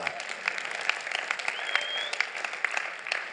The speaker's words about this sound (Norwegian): Nei, det er all god grunn til å klappe, ja.